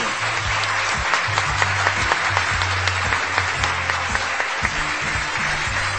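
An audience applauds the winner of a presbyopia consultation prize in a dense, steady wash of clapping. It holds an even loudness for about six seconds, with a low humming tone running underneath.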